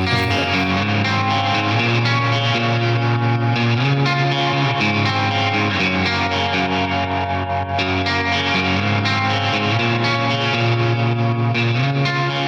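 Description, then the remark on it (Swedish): Electric guitar, a G&L Tele (ASAT), played through the built-in tremolo of a Deluxe Reverb amp: sustained chords pulsing steadily in volume, loud and dense with a slightly distorted, echoing tone, playing alone without any talking. “Är det Deluxens tremolo eller har du gjort det i efterhand? Deluxens.”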